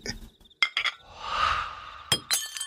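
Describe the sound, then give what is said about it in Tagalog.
A glass of milk is dropped and crashes and shatters: sharp ringing impacts, a brief noisy spill, then more bright clinks of pieces settling. No voices. “Nabasag mo pa. Sayang naman yung tinimpla ni nanay.”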